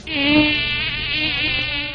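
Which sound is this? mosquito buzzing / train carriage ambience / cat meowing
mosquito buzzing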